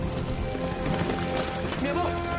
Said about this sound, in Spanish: Una lluvia torrencial cae sobre ellos.